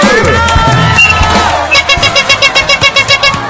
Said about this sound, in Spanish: No, gracias a ti, bravísimo. Un aplauso, por favor.